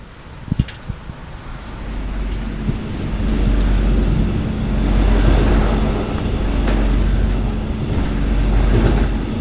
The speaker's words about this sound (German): Und ich würde sagen, ich fahre jetzt einfach mal los und wir hören uns dann später in Lübeck wieder